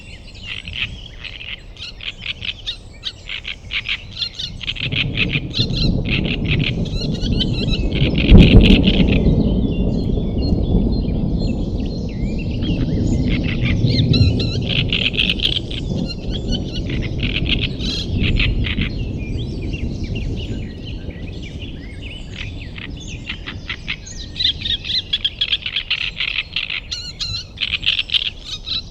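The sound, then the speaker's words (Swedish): Constant birdsong fills an outdoor forest scene, with many overlapping chirps and trills at a steady, busy pace. After the first few seconds a low, rushing rumble like wind swells beneath them. “för de som har varit i Trollskogen som kan leva sig in det är väldigt märkligt att ha det där.”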